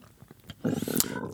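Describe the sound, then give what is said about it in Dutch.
A low, rumbling stomach growl swells up suddenly and gurgles for under a second, moderately loud, with no talking over it. “Zo, dat was mijn maag.”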